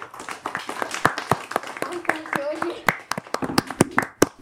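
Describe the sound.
A group of children applauding, with scattered, uneven claps close by for several seconds while young voices chatter and call out underneath.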